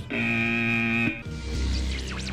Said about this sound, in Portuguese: Campainha do ouvinte das outras rádios.